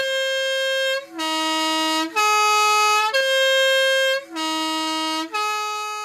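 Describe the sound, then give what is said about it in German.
A Swiss post bus horn blares a loud, brassy tune on the single narrow main road of the Onsernone Valley, north of Lago Maggiore, at 7 a.m. on a hazy, cold, foggy morning. It steps through a few sustained notes of different pitch, then repeats the pattern, with no voices and no other traffic noise. “Auf der einzigen schmalen Hauptstraße drängeln sich Autos, Lastwagen und der Postbus.”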